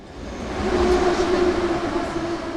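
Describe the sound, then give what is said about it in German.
A train moves through an underground metro station in the north of Kharkiv, Ukraine, with a steady, loud rumble and a droning mechanical whine that swells and then eases slightly, filling the space with echoing low noise. “Die ältere Dame sitzt im Zwischengeschoss einer U-Bahn-Station im Norden von Kharkiv.”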